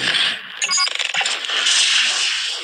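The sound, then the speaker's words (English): A bright digital whoosh bursts open into a quick flurry of sparkly, jingling chimes, then settles into a sustained shimmering swell as a mystery box is opened in a game. No voices are heard. “This is the sound of my mystery box being opened for today.”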